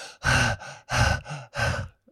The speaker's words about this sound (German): also mit rausgestreckter Zunge einfach kurz so ein bisschen hecheln.